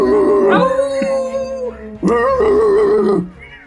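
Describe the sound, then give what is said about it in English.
Human voices imitate dogs howling: two loud, drawn-out howls, each wavering in pitch, with a short gap between them and no clear words. “We, we st- oh no, we started the howl.”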